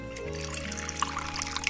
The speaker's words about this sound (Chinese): 奥兹走到碗橱跟前。伸手从上面的一层搁板上取下一个方形绿瓶子，把里面的东西倒在一个雕着美丽花饰的绿色的碟子里。